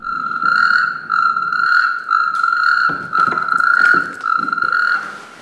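A natterjack toad's loud, rattling trill rings out as a phone ringtone, repeating in long, steady bursts with brief pauses between them, with no one talking.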